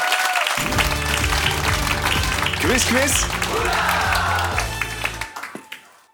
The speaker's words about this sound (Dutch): En een klein eh, applaus.